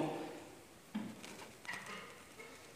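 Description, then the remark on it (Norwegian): A few dull knocks on a door, spaced irregularly over a couple of seconds, moderately loud against a quiet background. “Der står det Se, jeg står for døren og banker.”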